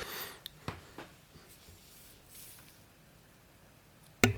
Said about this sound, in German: Entschuldigung, ich muss mich ganz kurz räuspern, Moment.